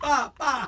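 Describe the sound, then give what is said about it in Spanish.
A voice imitates two gunshots with a pair of short, punchy spoken syllables, "pa, pa", in quick succession, fairly loud, with no other sounds around them. “Yo sé que el tipo hizo así, va, pa, y tiró dos tiros, Luis, two shots, pa, pa”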